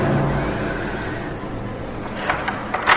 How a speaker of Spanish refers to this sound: Decidida llama a la puerta.